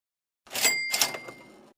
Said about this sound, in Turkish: Evet millet duydunuz zilin sesini.